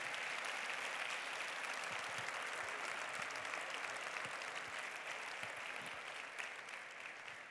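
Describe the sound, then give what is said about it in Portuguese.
Sustained applause for Jesus from a church audience during a sermon, a dense steady wash of many hands clapping at an even loudness, tapering slightly toward the end, with no voices standing out. “Pode aplaudir Jesus mesmo, pode aplaudir Jesus mesmo, é muito bom.”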